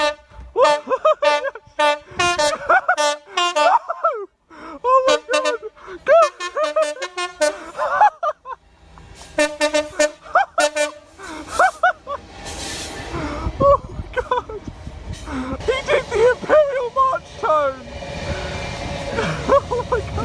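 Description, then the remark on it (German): A car horn honks out a rhythmic melody of short and held notes, loud, the tune of the Imperial March, sounded at a person standing on a bridge above, with laughter and background noise building toward the end. “He did the Imperial March Tone.”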